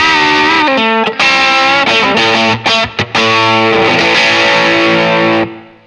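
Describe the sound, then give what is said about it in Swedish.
Loud, heavily distorted electric guitar played through an amp on its rhythm channel with the gain turned up, sustained chords with a few quick choppy breaks, dense and saturated, then ringing out and fading at the end. No talking. “Om jag sätter på rytmläget då här så mm.”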